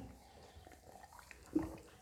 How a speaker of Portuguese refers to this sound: Enquanto eu tomo água aqui rapidinho.